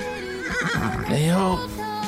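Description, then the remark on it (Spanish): A horse whinnies loudly, a single long neigh with a quavering, rising-and-falling pitch that fades out after about two seconds. “Esa es la historia de un caballo que mantenía muy enfermo.”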